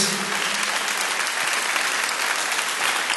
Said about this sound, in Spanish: Dar un aplauso fuerte a nuestro Dios.